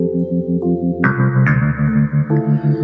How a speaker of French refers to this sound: Bon voilà, j'avais pas la bonne note, mais voilà, vous saisissez l'idée, euh, c'est-à-dire un genre de trémolo qui va faire évoluer le volume du son. donc ça, c'est complètement créatif. C'est complètement une utilisation créative de la modulation.